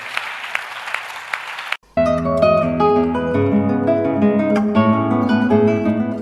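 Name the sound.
audience clapping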